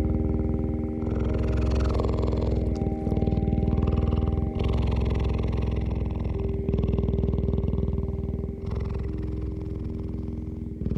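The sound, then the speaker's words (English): A cheetah resting under a baobab tree in the middle of the afternoon purrs steadily and loudly, a deep continuous rumbling throb with a low, rough vibration that pulses slightly in rhythm with its breathing, with no voices present. “We found this cheetah that was resting under a baobab tree one afternoon in the middle of the day.”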